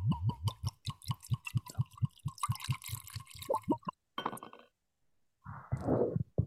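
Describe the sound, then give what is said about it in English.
Liquor glugs steadily from a bottle into a spherical glass over a cubed ice cube, a quick rhythmic pulse of clear pours, ending with a brief splash, a pause and a soft rustle. No voices. “So it flavor, and we're gonna pour this in.”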